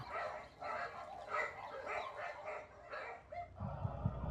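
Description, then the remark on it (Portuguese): Dogs bark as a door opens, in a steady run of sharp, repeated yelps about twice a second, fairly loud, with a low rumble rising near the end and no one talking. “E aí, os cachorros começam a latir.”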